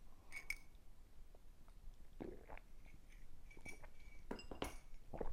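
A coffee cup clinks a few times with short, bright ringing tones while someone drinks a sip of coffee, with soft sipping and slurping noises in between; quiet overall, with no talking.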